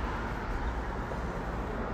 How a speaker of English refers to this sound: So I'm outside making the, this podcast as you have heard the cars passing by, right?